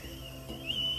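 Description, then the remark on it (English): A stovetop teapot whistles faintly while coffee is being made, a thin steady high tone that swells slightly partway through over a low background hum, with no talking. “It's a slight whistle. Maybe that's better than too loud today.”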